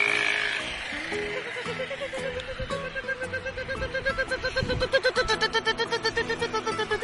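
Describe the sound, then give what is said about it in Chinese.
A voice imitates a tuk-tuk auto-rickshaw engine with a fast, rattling, pitched putter that starts rough, then settles into a steady pulsing rhythm that grows a little louder toward the end. “这是突突突突突突突突突突车的声音。”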